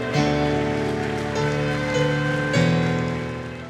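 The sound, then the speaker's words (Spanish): A church audience at a Christian worship service claps steadily and loudly, a dense crackling patter that never lets up, giving applause to God over sustained keyboard chords that shift pitch a couple of times. “Y el pueblo dice, y el pueblo dice, guárdese la llave en el bolsillo y dele fuerte ese aplauso al que vive.”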